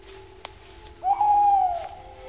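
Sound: owl hooting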